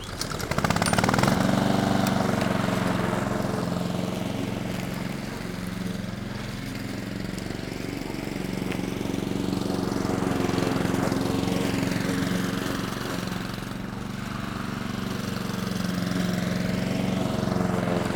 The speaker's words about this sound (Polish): Pchając kosiarkę, Tom spacerował po trawniku, a maszyna ścinała to, co ścinać powinna.